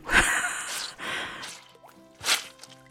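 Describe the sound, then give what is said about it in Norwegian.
Three wet, squishy squelches from soggy shoes, spaced unevenly like steps while hiking across Norway, each a short sloshing burst, with no one talking. “For jeg fikk sånn ryggsekkknirking og så skvulping av sko.”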